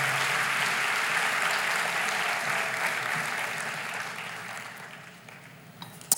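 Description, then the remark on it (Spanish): An audience applauds God during a Spanish-language church sermon, a steady, dense wash of clapping that gradually thins and fades toward the end, with a couple of sharp claps at the close. “Dale un aplauso a Dios por ese inmenso amor, maravilloso amor.”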